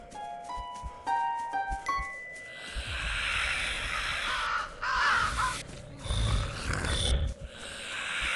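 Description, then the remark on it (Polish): A raven caws loudly, a quick run of harsh calls followed by longer raspy, croaking squawks over a rough, noisy background, with no one talking. “Dobra, kruk mnie musi zjeść.”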